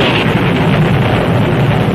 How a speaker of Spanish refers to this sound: Perfecto. Me gusta que parece un trueno una película de los años 40.